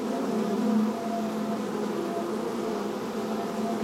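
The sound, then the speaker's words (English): A loud, steady insect-like buzzing drones continuously, a thick low hum with a harsh, swarming edge that holds at an even, menacing intensity throughout. “On the 13th day, the fighter and the cleric can hear a dangerous sounding buzzing noise.”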